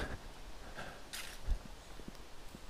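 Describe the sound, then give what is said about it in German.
Wind rushes softly through the trees overhead at an exposed mountain hotel, a faint steady hiss that swells into one brief louder gust, with a few quiet footsteps. “Jetzt höre ich das Rauschen über mir, also der Wind ist scheinbar hier.”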